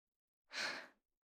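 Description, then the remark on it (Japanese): A single soft, breathy exhale lasting about half a second, very close and intimate, like a gentle sigh right beside the ear, with no talking. “お嫁さんの吐息、ちゃんと覚えてね。”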